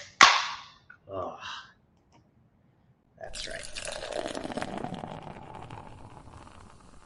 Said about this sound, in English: So cheers to that. Let's crack open our uh, ice cold non alcoholic